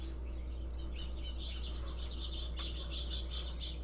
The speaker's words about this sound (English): Um, I've been enjoying the hell out of these birds. I love birds. They make me so happy.